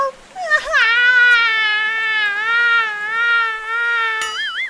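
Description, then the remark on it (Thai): A single long, loud wail, like a child crying out, held for about four seconds with a wavering, quivering pitch. It sounds like a voice imitating the cry of a baby snail, with no other talk. “ลูกหอยทากจึงได้ร้องโฮออกมา”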